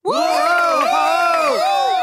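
A crowd of little animals, gathered to taste the hippo chef's new coffee, erupts in loud, overlapping cheers and whoops, sustained for about two seconds with bright, high-pitched shouting throughout.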